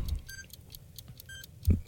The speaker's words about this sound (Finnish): Mulla on, mulla on tää tämmönen tikittävä kello.